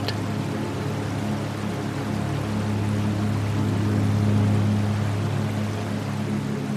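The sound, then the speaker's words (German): The Selfoss waterfall in Iceland plunging into a rushing river, huge masses of water pouring over steep cliffs: a steady, unbroken roar of rushing water with a deep, droning rumble underneath, holding the same loud level throughout with no voices. “Der Selfoss-Wasserfall stürzt unermüdlich in den reißenden Fluss.”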